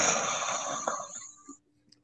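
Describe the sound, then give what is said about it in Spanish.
A person imitates a snore with a single raspy, rattling breath that lasts about a second, loud, then fades into near silence. “Sí, güey, yo definitivamente ronco, güey, pero cuando realmente estoy cansado.”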